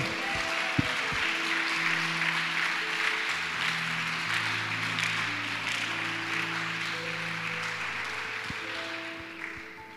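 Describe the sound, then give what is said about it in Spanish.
An audience applauds the Lord steadily for the full ten seconds, a dense, sustained clapping, with held organ or keyboard chords sounding softly underneath. “Dale aplauso al Señor.”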